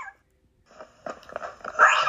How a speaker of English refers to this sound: Growling tortoise. Whoa! Sounds like a dog.